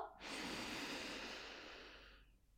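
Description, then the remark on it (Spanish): One long, deep breath drawn in steadily for about two seconds, fairly loud, a breathy rushing that swells quickly and then slowly fades away; a balloon breath in a breathing exercise, inhaling to inflate like a balloon. No talking. “Inhala, inflate como un globo.”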